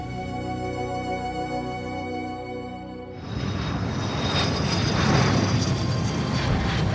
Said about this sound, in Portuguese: Imagine estar a bordo de um avião a caminho do destino desejado.